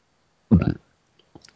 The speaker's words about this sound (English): And that was me burping. Yeah, I noticed.